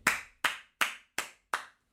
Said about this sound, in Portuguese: Bati palmas para mim